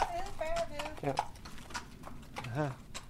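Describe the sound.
Horse hooves clip-clop in a steady, uneven rhythm while people talk over the clattering steps.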